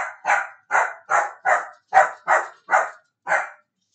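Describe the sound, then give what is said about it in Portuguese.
A female dog in a house barks eight times in a steady, insistent rhythm, each bark sharp, with a short pause before the final one and no voices. “Isso é a minha cachorra vendo fantasmas e me alertando sobre fantasmas na minha casa.”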